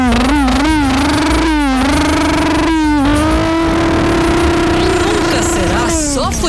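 A motorcycle engine revs loudly. The pitch climbs and falls in several quick bursts, then settles into a steady high drone before dropping off at the end.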